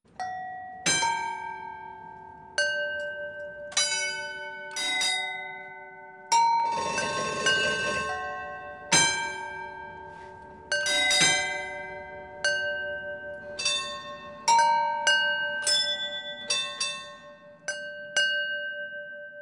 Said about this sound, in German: Der Klang der Trambahnglocken ist ein ganz eigener Sound